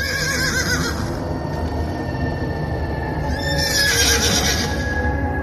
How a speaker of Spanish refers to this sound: Una mañana mientras limpiaba los caballos,